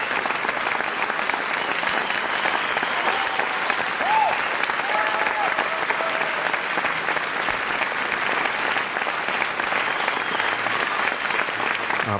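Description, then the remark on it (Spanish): Sustained applause from a large audience after a sung performance, a dense, steady wash of clapping that keeps an even loudness for the whole stretch, with a few faint whistles or cheers poking through. “aplausos y más aplausos y esto es lo bonito de, cuando se canta y cuando lo se hace con ilusión.”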